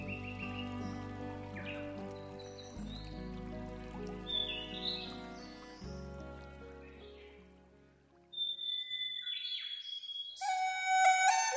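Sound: birds singing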